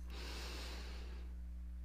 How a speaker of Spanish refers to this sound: Vas a notar que de repente tu mente se va a poner a divagar y cuando lo notes vas a volver a traer a tu mente a la respiración. Inhalas.